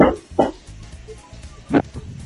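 A small female dog barks in short, sharp yaps: two quick ones, a pause, then another pair, over a low steady background hum.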